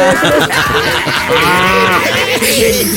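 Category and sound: animal, cow mooing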